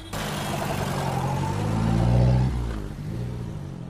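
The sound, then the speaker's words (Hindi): A taxi engine revs up steadily, its low rumble rising in pitch and loudness for about two seconds before easing off as the driver pulls the taxi away when the traffic signal turns green. No voices are heard. “signal हरा हो गया ड्राइवर ने टैक्सी आगे बढ़ा दी”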